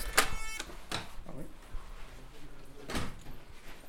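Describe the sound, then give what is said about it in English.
A big, heavy locked door, whose red light has turned green, unlatches with a sharp, buzzing clack, followed by a couple of dull thuds and scraping movement as it swings open, with faint voices in the background. “Okay, so we have to go through this big door.”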